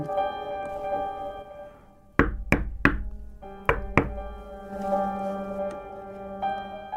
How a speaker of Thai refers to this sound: เมื่อเวลาสองทุ่มเศษคราวนี้เห็นแสงไฟอยู่ข้างใน เมื่อรู้ว่ามีคนมาอยู่แน่จึงเข้าไปเคาะประตูสองสามครั้ง